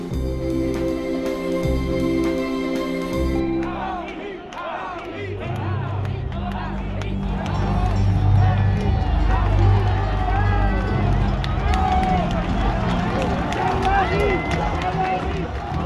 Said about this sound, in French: Ce n'est pas la foule des grands jours pour le traditionnel défilé du 1er mai, organisé par le FN en l'honneur de Jeanne d'Arc. on acclame Marine Le Pen, mais dans les rangs, on parle de Jean-Marie.